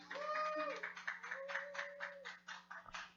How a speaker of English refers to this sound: We got a very small crowd joining us. Why don't you go ahead and give uh, a round of applause for Dr. AC Demidont? She's here in the building. Clap it up for our little live audience.